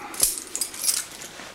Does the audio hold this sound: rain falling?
no